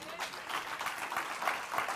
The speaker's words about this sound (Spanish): De un aplauso al Señor Jesús.